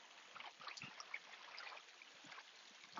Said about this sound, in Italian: Questo è un fiume ma eh, si vede che è un fiume eh, e questa invece è la zona dove siamo.